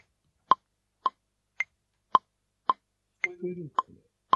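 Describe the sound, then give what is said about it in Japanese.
A messaging app's notification pop, likely from LINE, repeats about eight times in a steady, evenly spaced rhythm, each one short and clear, with a brief low murmur of voice near the end. “さっきからすごい通知の音がすごいんですけど。はい。ペコペコは多分 LINE ですかね。”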